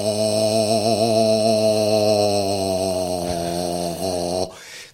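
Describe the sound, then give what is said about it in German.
A low voice sings a long, steady "O" vowel, rich in buzzing overtones, gliding up a third from one pitch to another partway through before cutting off abruptly near the end. “mit dem mit einem einfacheren Vokal an, das ist das O, weil da ist alles entspannt, da musst du einfach nur den Mund aufmachen, gähnend einatmen und dann geht man von einem Ton, ich fange meistens mit einer Terz an, von einem Ton zum anderen, also O.”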